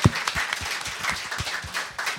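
A short burst of applause from a small group welcoming guests, a steady patter of overlapping hand claps at moderate volume with no voices.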